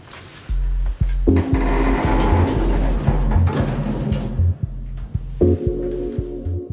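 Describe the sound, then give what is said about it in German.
Elevator doors slide shut and the lift starts running up toward the 13th floor, the top floor, with a steady mechanical hum and a rapid, regular low-pitched clatter that shifts in tone partway through. Loud, with no voices. “Tür auf, Tür zu, Knopf gedrückt und los geht's.”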